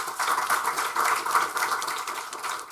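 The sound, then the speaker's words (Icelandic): Steady applause from an audience, a dense wash of many hands clapping at an even level throughout, with no voices over it. “takk fyrir ykkar frábæri vinnu og gefum þeim gott klapp þessum góðum önum hérna.”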